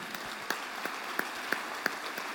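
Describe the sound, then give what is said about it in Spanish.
A church audience claps together for the Lord in a dense, steady wash, with sharper claps standing out at a regular beat, rhythmic and sustained at moderate volume with no voices. “Vamos a pasar ahora a nuestro Déselo al Señor fuerte, amén.”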